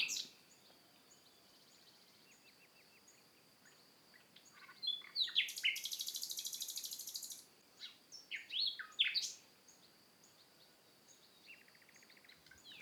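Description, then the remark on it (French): A European robin sings nearby in thin, high, warbling phrases that swell into a louder burst midway, then trail off into softer trills, with no voices present. “voici que vient tout près de moi chanter mon rouge-gorge”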